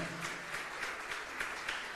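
An audience applauding the word of the Lord one morning, a steady dense wash of many hands clapping with faint rhythmic surges, sustained at an even moderate level throughout with no voices standing out.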